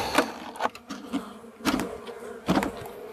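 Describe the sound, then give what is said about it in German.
A dense hum of many honeybees buzzing as a handful of bees is poured over from a box, swelling in a few louder bursts over a steady drone, with no talking. “So, jetzt geht es noch darum, diese Handvoll Bienen rüber zu schütten.”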